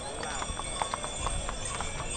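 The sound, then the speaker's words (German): Steady clip-clop of horse hooves, several horses pulling carriages at an even trotting rhythm on the unpaved sand streets of El Rocío during the Pentecost pilgrimage, with a busy crowd murmur and carriage rumble in the background. “Es fahren allerdings keine Autos, sondern es sind Pferde und Kutschen unterwegs.”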